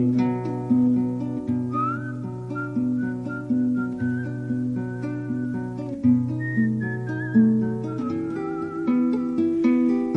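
A tune whistled in a song over a steady plucked string accompaniment, the wavering whistled melody gliding between notes in a relaxed, unhurried phrase at moderate volume, with no voices.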